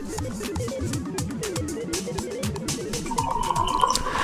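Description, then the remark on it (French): Tea pours steadily into a cup, with a faint rising tone toward the end as the cup fills, over a low, busy background murmur. “se servait un thé en suivant de son siège de commande des traces lumineuses évoluant sur la coque de son vaisseau”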